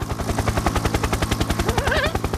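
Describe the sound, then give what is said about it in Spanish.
A helicopter rotor chops in fast, steady thumps, loud throughout, with a brief rising whine sliding upward near the end. “Ay, ay, ay, venga, vete a dar una vueltita ahorita a mi helicóptero.”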